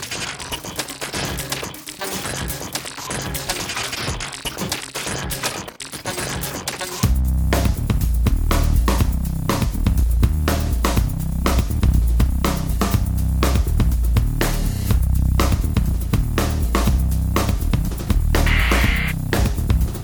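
A loud, harsh industrial-style song plays as a short musical break with no talking, a noisy, clattering opening giving way after about seven seconds to heavy bass and relentless, rapid pounding percussion.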